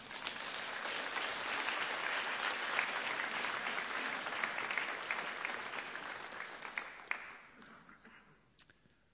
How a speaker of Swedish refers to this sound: En applåd, tycker jag.